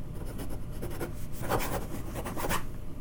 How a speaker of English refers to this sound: There you go. That was just me writing on a piece of paper.